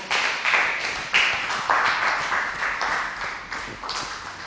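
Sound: audience applauding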